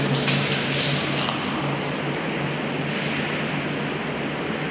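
A steady, continuous rush of distant flowing water from a waterfall in an underground tunnel near Torshov fills the space, a broad hissing roar with a low hum beneath it, unchanging in loudness and with no voices.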